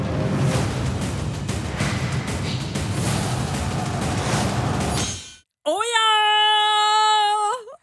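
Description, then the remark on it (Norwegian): Dramatic, heavy drums from the soundtrack of the TV series Game of Thrones, season seven, pound with a dense, rumbling low end for about five seconds, then cut off abruptly before a loud, sustained, wailing tone rich in harmonics. “Og så de trommene. Ja, lyden fra Game of Thrones eh, sesong sju, som starta på mandag, mm.”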